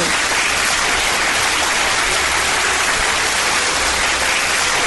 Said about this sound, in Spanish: Aplausos, muchos aplausos.